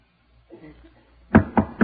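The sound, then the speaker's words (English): Three firm knocks on a door, evenly spaced, following a moment of soft low rustling. No one speaks. “Somebody knocked on my door.”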